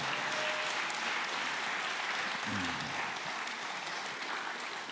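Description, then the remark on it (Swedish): A church audience claps for the Lord in steady, dense applause, a continuous wash of many hands with no pauses, holding even loudness throughout, joined by a brief low vocal sound partway through. “Kan vi applådera till Herren?”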